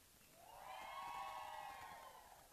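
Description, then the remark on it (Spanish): A live audience at a music show's backstage lets out a sustained collective shout and cheer on the host's request, rising quickly and holding steady for about two seconds before fading. “Otra vez, un grito del foro, por favor.”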